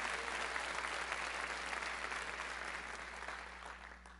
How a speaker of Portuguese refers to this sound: Pode aplaudir o Senhor mesmo, porque é maravilhoso isso.